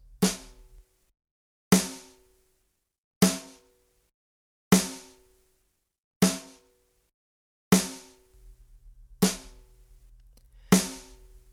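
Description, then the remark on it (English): A drum plays eight evenly spaced quarter notes, one note per beat, each hit ringing out and fading before the next, in a slow, steady pulse. A faint low hum sits underneath at the start and end. “Obviously, the most basic rhythm that we're going to play is the quarter note. So that's just going to be one note per beat and it simply sounds like this.”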